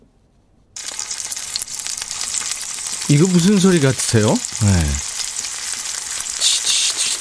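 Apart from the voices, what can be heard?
pancakes frying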